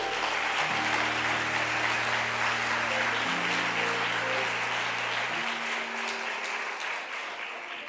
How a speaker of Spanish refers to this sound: Denle un aplauso fuerte a Jesús.